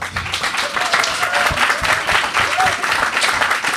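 An audience applauds steadily for about four seconds, a dense, even patter of many hands clapping with a few faint voices mixed in underneath.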